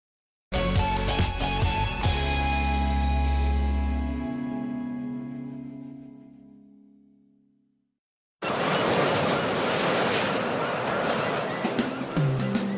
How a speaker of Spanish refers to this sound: para que las únicas olas que escuches sean las del mar.